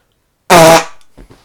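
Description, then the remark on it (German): A loud, buzzy fart-like blast made by blowing into a hand, lasting about a third of a second and ending abruptly, followed by a few faint soft rustles. “Sie hörten einen Furz. Nein, das war kein Furz. Der hat einfach nur in seinen Mund, äh, in, seinen, in, seine, in seine Hand gepustet.”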